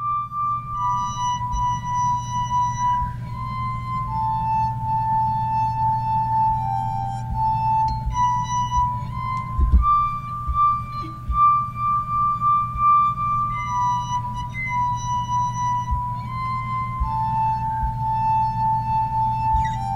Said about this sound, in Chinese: 小蜜蜂， 小蜜蜂，大家都很耳熟能详的曲子，听起来好像是蛮简单的旋律。但是我们来听听看，如果透过酒杯来做演奏的话呢，会发出什么样的声响呢？我们一起来聆听哦。